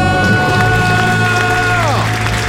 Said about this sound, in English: Count it down. Let's hear a debt free scream three, two, one.